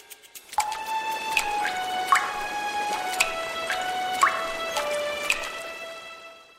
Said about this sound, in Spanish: Ah, eso sí es agua. Y sí, suena muy musical, ¿verdad?